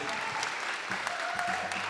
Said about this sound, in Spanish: un aplauso también por favor para el querido Chiqui